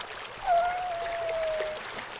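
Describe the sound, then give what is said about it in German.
Steady rushing water fills the scene, a waterfall pouring into open water in a bay, with a long, slowly falling tonal call drifting over it for about a second. “Wie wäre es mit einer Bucht mit Wasserfall?”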